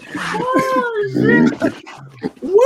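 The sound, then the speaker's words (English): A voice imitates a pig, letting out a few loud, nasal oinks and grunts that rise and fall in pitch, with a rough snorting stretch in the middle. “Oh, it's a pig.”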